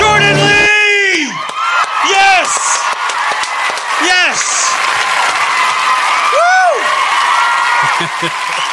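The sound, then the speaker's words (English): A loud crowd roars continuously, with repeated high whoops and screams rising and falling over dense cheering and clapping, energetic throughout, as a two-time Bassmaster Classic champion angler is introduced. “Hey, you got a lot of people in there screaming.”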